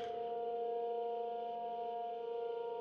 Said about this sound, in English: Do you hear that? The sirens are going off.